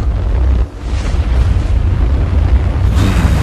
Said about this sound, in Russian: Есть запуск двигателя третьей ступени.